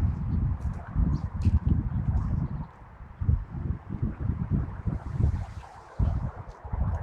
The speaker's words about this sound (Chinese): 有风，能听到吗？有风的感觉还挺明显的啊。